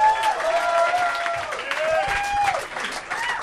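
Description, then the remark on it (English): An audience bursts into steady, loud applause mixed with whoops and cheers as a performer is introduced and comes from the back of the room, a dense wash of clapping with rising and falling shouted tones running throughout. “Come on, make some noise for everybody.”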